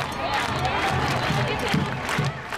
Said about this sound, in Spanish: Sabemos que los gritos y los cacerolazos incomodan, pero es precisamente por eso que transforman y que pueden contribuir a la afinación del mundo.